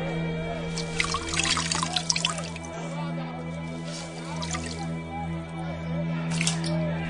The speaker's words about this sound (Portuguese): Lavou as mãos diante da multidão